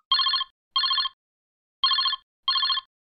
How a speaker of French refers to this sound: on a un coup de téléphone.